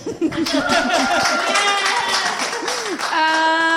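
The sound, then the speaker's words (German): A crowd applauds a band steadily with dense, continuous clapping, while several voices whoop and cheer over it, one rising into a long held shout near the end. “Bitte einen ganz, ganz donnernden Applaus für ….”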